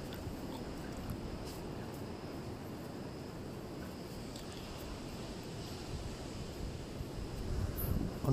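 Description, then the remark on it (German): Steady low wind blows throughout by the sea on a moonlit evening, a constant rumbling rush with faint airy hiss, swelling slightly louder near the end; no voices are present. “der Wind, das Grillen.”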